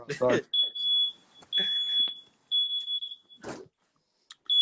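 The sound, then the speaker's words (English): A high-pitched smoke alarm beeps in long, repeated tones in an apartment building, loud, with brief gaps between them, while people talk over and between the beeps. “Yeah, but what you burning though? I'm not burning shit. It's the whole apartment building.”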